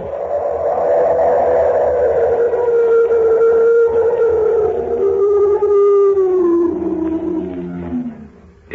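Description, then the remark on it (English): A loud, sustained animal howl, taken for the cry of an abominable snowman, slowly drops in pitch over about eight seconds, harsh and roaring in tone, overpowering, with no voices around it; heard on a high mountain pass across the Tibetan border. “It was an animal, unquestionably. Why, it was so loud, so, so violent, that it actually shook the ground under my feet.”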